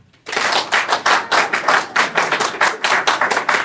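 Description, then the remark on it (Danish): An audience claps steadily for several seconds to vote for reading the book Rejsen til Saturn, a dense crackle of many hands with a rough, even rhythm and a slight pulsing swell, no voices over it. “Så hvis I synes, at vi til episode 105 skal læse Rejsen til Saturn, så skal der klappes nu.”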